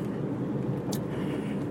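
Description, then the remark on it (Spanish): Steady low rumble inside a Kia Sportage car while it is being driven, a constant muffled hum filling the space with a brief faint click partway through; no one speaks. “¿Por qué grabo en mi coche?”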